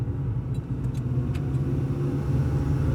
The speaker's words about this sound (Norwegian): Kari kjører, og mens de sitter i bilen